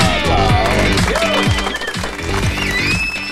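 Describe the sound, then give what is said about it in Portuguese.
A group claps steadily, a dense burst of applause with several voices cheering or singing over it, celebrating a priest's birthday. “Palmas, palmas”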